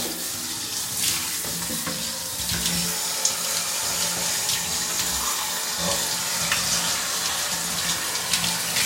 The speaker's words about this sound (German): Wollen wir mal alles richtig schön abduschen.